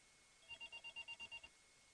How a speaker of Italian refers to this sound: E una telefonata per fortuna interrompe il mio discorso che sennò rischiava di essere troppo contorto, quindi lo concludo dopo.